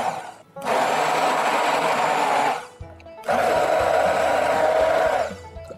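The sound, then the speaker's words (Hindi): A hand blender whirs loudly in two bursts of about two seconds each, separated by a short pause, its motor buzzing steadily as it churns thick drumstick pulp that was put back into the soup. No one speaks. “मैंने सारे drum stick से माल निकाल लिया है अब इसको वापस इसमें डाल देते हैं और इसको ब्लेंड करेंगे अब इसको मिक्सी में कर सकते हैं या तो ब्लेंड कर सकते हैं ऐसे ही”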